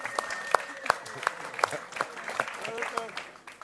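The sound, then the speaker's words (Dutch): A small group claps for accountants for a few seconds, with sharp, bright hand claps landing in a steady rhythm over a soft murmur before thinning out toward the end. “Let's all give the accountants a hand right Laten we alle accountants een applaus geven.”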